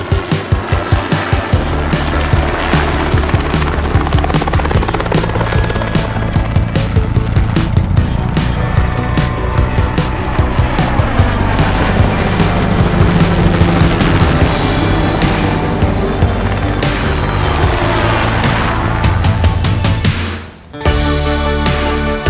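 The theme tune of Vuelo Estacionario, the helicopter section of the radio programme Aerovía: a loud, driving tune with heavy bass and rhythmic percussive hits plays continuously for about twenty seconds, cuts out briefly, then kicks back in. No voices are heard.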